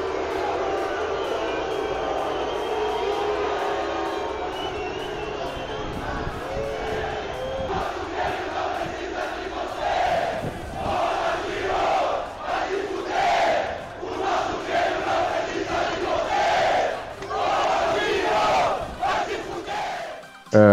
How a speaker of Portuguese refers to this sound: que foi demais, assim, a maior vaia que eu já ouvi na vida.